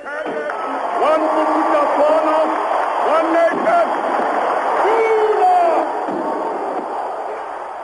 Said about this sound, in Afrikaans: En uit die kele van nagenoeg 40.000 mense hoor u die gejuig.